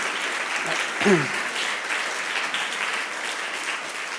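Steady crowd applause fills the whole stretch, a dense wash of clapping that stays fairly even in loudness, with a brief voiced call or cheer rising out of it early on.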